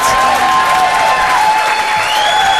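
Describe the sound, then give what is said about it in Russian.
A loud applause sound effect: a burst of crowd applause, dense and steady clapping throughout, with faint thin whistling tones riding above it and no one speaking. “Да не стоит аплодисмент, боже мой, да, спасибо большое.”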